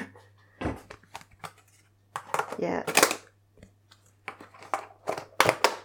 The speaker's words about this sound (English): Well, that's the sound of lids going on rice.